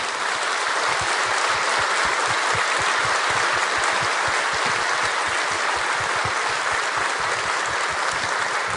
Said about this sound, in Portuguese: E eu queria aplaudir ao Senhor pela sua vinda. Você me ajuda a aplaudir as mulheres que estão aqui?